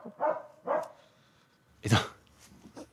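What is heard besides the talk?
dog barking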